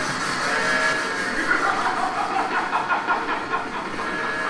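A steady, rumbling mechanical drone like a moving train, fairly loud and continuous, with a faint rhythmic clatter toward the end and no voices.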